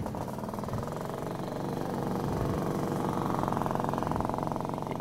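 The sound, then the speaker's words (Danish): A moped engine runs steadily with a buzzy, rattling drone, its pitch rising slightly as it revs up and holds, loud and continuous with no voices. “Altså, der er lidt af det på en knald, når du kører derud af.”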